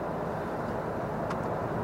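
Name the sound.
car interior noise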